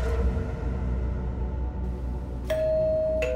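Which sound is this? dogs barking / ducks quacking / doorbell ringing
doorbell ringing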